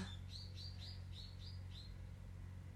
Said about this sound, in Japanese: 鳥が鳴いた